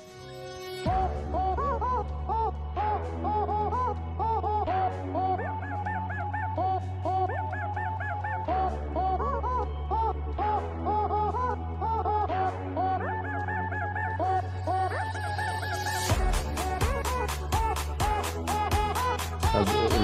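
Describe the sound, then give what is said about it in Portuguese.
Chicken clucking sounds repeat throughout a played song, riding over a steady bass line and synth music, with the track growing busier and more percussive near the end. “legal é a cara da galinha.”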